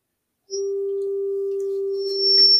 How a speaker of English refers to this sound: got the test tone there.